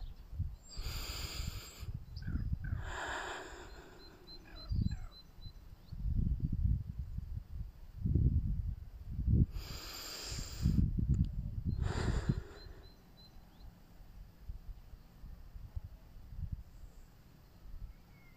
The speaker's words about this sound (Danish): Du kan tage vejrtrækninger sammen med mig, eller du kan gøre det for dig selv og snuse ind med din næse.